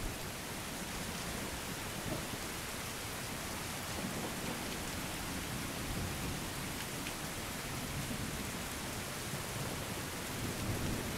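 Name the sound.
heavy rain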